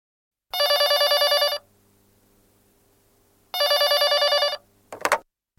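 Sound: telephone ringing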